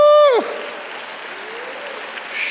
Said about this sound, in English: Everybody, let's give God a good hand clap.